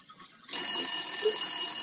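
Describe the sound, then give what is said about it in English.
After a brief moment of near silence, a telephone bell starts ringing loudly, a continuous bright metallic trill that carries through to the end with no talking. “I need you to come in here help me work this phone.”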